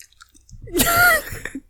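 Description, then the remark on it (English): Someone drinks water noisily: one loud, hissing slurp with a brief whistling tone, followed by a few soft swallowing and mouth clicks. No one speaks. “and then I this... drink really loudly.”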